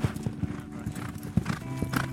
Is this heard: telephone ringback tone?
no